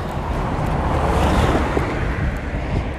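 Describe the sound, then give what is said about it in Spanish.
A car passes on the street, its broad tire-and-engine roar swelling slightly in the middle, mixed with gusty wind buffeting the microphone. “A ver este coche”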